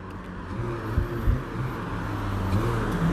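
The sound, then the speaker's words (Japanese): An automatic car being driven aggressively, tailgating; its engine rumbles steadily, the low drone rising in a couple of brief surges as if revving while it drives past, with no voices. “すごい煽るな車がオートマでよく煽れるそう”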